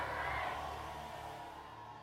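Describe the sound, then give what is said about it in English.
A large audience shouts amen together in one loud, sustained roar of voices, then gradually fades over about two seconds. “Let your amen thunder louder.”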